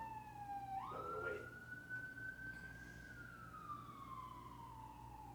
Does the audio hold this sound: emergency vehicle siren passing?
yes